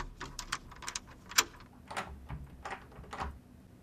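An apartment door on rue Adrien Lachenal being unlocked with a set of keys and opened: a run of sharp metallic clicks and rattles, one louder snap in the middle, then a few softer knocks and scrapes, with no voices.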